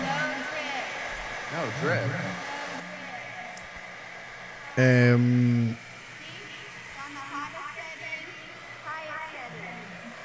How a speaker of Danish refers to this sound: Men øh, de har så fundet ud af, at sneen den ikke smelter. det I hører lige nu, I til jer, der hører podcasten, det er, at øh, hun holder en øh, hårdtør op til snebolden, og, øh, og den smelter ikke.